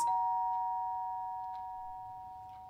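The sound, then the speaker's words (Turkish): A doorbell rings once, its clear electronic chime struck sharply and then left to ring out and fade slowly over a couple of seconds, with no voices. “Hah, geldi galiba. Açmayacak mısın?”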